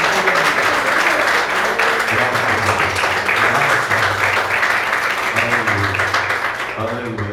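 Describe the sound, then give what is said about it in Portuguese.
An audience bursts into loud, sustained applause to glorify God, dense overlapping clapping that holds steady for several seconds, with voices talking and calling out underneath. “Essa é a palavra que o Senhor colocou no meu coração e as palmas que glorifiquem a Deus.”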